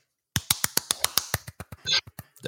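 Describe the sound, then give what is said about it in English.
A lone person claps about a dozen sharp, crisp times in a brisk rhythm that slows and grows softer toward the end, with a brief rustling burst between the last few claps. “I'm the only person clapping, but I.”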